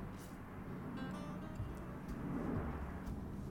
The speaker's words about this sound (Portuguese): Pausa pro avião passando